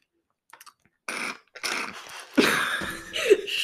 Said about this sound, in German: Stille. Man hört nur Schlürfen.